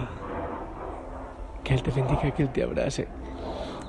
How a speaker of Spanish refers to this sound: Lo siento por el avión, pero bueno, ya es familiar. Hace parte de nuestra oración.